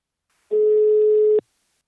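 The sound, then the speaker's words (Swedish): A single steady electronic ringback tone from an outgoing phone call to the business partner company Invacare sounds for about a second, clear, then cuts off with a click. No voices are heard. “Nu tar vi en kort paus och ringer upp min samarbetspartner Invacare.”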